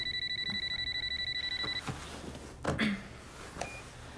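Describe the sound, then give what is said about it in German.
An electronic phone ringtone trills rapidly for under two seconds, then cuts off, followed by soft handling clatter and a couple of dull knocks. “Vielleicht die Kinder. Dann geh lieber ran.”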